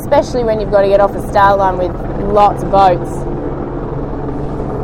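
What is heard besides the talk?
helicopters flying overhead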